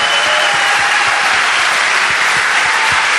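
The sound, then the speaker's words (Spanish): A church audience applauds to congratulate a minister on 40 years of ministry, a dense, steady wash of many hands clapping at once, loud and even throughout with no voices standing out. “Aplausos Señor.”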